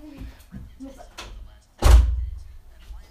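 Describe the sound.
A door shuts with a single heavy thud, loud, its low boom fading over a moment; faint voices murmur in the background beforehand.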